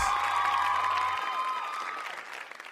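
A crowd breaks into loud, dense applause for a rap and R&B singer, with cheers and whoops rising above the clapping, a sustained burst that begins to taper toward the end.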